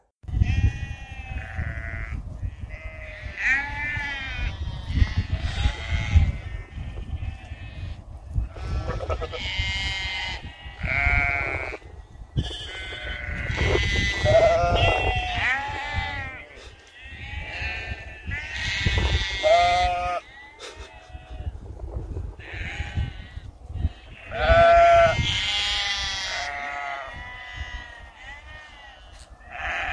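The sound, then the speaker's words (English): A flock of sheep bleats almost nonstop, wavering calls overlapping one another at varied pitches, some high and some deeper, loud throughout with only brief lulls. “There's been a lot of sheepy shuffling going on recently, and I thought I'd have a go at adding some commentary.”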